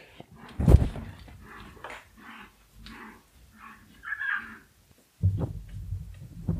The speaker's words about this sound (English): what was that sound? Oh, there's a dog barking in the yard. That's kind of terrifying. Oh, it's actually a dog and a cat.